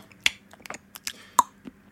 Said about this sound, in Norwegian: Da eh, spoler vi tilbake til smattetake, det fantastiske smatteteiket som vi hører her. Smatter veldig, veldig mye. Det er lettest når man, ofte når man tygger sånn.